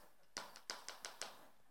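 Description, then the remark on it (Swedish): A series of five or six sharp knocks on the hard cover of a Bible, irregularly spaced and crisp over quiet background hum. “Det hörs när man knackar på dem.”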